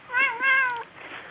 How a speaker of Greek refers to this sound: Τον άκουσε. Τι έχουμε. Το γάτο. Ναι, τον άκουσα. Τι έπαθε. Τίποτα, λέει καλημέρα κι αυτός.